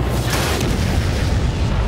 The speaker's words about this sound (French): Ah, elle est pas mal faite, hein, l'explosion.